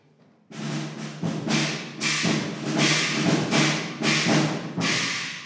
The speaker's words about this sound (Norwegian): Går det an å få høre de to taktene bare i slagverket en gang?